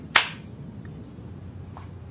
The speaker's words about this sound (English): I'm not going to give you another hug, but I'm going to give you a high five.